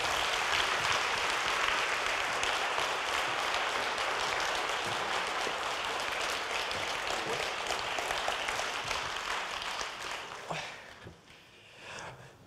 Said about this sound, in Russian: Ваши аплодисменты.